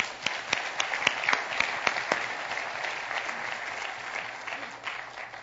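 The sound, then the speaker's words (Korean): A church audience applauds together for those who served, a dense, steady wash of many hands clapping with a few sharper individual claps standing out early, fading slightly toward the end. “우리 앞에 수고하신 분들 위해서 박수 한번 해주십시오.”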